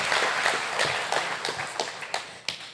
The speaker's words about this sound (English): You guys, there's like 30 people getting baptized today. It's so crazy. Yes, you're already whooping and clapping. They haven't even gotten the water.